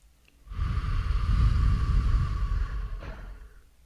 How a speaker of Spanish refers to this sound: Y mm, vamos a respirar profundo por la nariz, exhalando por la boca. Vamos a hacer eso tres veces. Y a medida que nos calmamos, vamos cerrando los ojos. Una tercera respiración profunda.